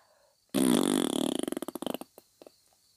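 A loud whoopee cushion fart bursts out suddenly as someone lies down on the rubber air cushion, a sustained blurting raspberry that breaks into a rapid series of flapping sputters and fades with a few last puffs.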